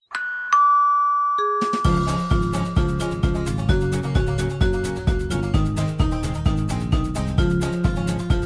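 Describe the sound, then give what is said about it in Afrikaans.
A bright two-note ding-dong bell chime rings out, then a loud, steady run of quick ringing tones continues in an even rhythm until the end, with no voices. “die kerk se klok sê dong dong die voordeur klokkie sê tr tr en die etens klokkie sê tr.”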